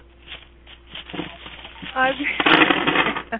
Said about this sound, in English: That's supposed to be coins dropping. I just added that.